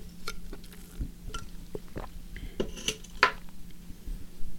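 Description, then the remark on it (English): Someone takes a quick sip of water, with light clinks and taps of a glass being handled and set down against a low steady hum, no talking. “Sip of water.”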